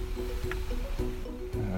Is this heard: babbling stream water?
yes